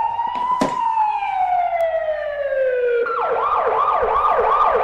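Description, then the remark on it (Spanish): A loud siren sound effect played for a closing sweeps in a long descending wail, then switches to a fast, repeating yelp pattern, filling the whole clip. “Quiero una sirena para el cierre.”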